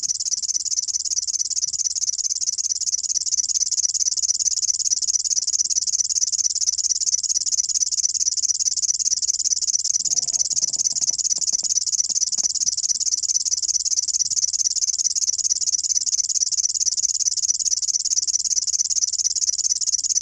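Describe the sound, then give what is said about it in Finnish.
A river warbler's insect-like song: a continuous, high, dry buzzing that runs unbroken and steady throughout, fairly loud, with no voices. “pensassirkkalintu on kuin heinäsirkka ja viitasirkkalintu on kuin hepokatti.”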